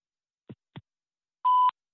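Two soft, short clicks are followed by a single loud, steady mid-pitched telephone beep lasting about a quarter second, the busy tone of a phone number that is engaged. No one speaks.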